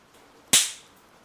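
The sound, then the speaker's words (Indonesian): A single loud, sharp pop like a small firecracker, coming from beside a desk at a power strip, with a quick crackling tail that fades within a fraction of a second against an otherwise quiet background. “Tapi tiba-tiba gue dikagetkan dengan adanya bunyi petasan dari samping meja gue.”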